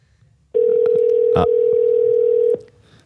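A single steady electronic ringing tone on a phone line, a call to a rum professional in Martinique, holds one pitch for about two seconds, loud and clear over faint background hiss, then cuts off. Nobody speaks.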